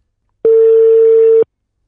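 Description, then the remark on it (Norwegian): A single ringback tone on an outgoing phone call to a Swede, football coach Fredrik Bjørk: one steady, mid-pitched electronic beep lasting about a second, clear and fairly loud, with silence before and after and no voices. “Men uh, i dag har vi bestemt oss for å ringe en svenske.”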